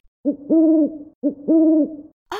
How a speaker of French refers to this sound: Oh, d'ailleurs, j'entends mon ami maître Hibou qui arrive.